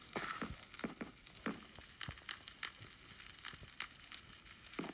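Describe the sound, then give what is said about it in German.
A house burning down in a video game: crackling fire burns steadily with sharp pops and snaps scattered throughout, a dense hissing bed underneath, moderately loud, with no talking. “Ja gut, dann fuck ich ja echt einfach wirklich das ganze Haus ab.”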